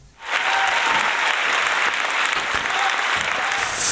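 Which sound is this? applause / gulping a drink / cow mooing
applause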